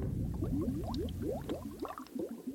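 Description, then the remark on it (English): Thick, gloopy bubbling lava with repeated rising blips over a low rumbling churn, popping and boiling steadily, with no voices. “So next comes the sound of thunder, volcanoes, bubbling lava. This is prehistoric Earth.”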